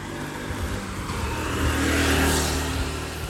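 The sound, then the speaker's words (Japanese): A motorbike engine passes by, its droning roar swelling to a peak about two-thirds of the way through and then starting to fade, with steady road noise underneath and no voices. “やばいバイク来ますすいません音がうるさいすいません”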